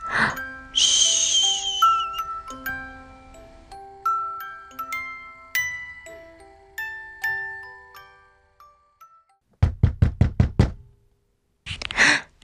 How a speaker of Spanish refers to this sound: De repente se despertó con un toc toc toc en su puerta.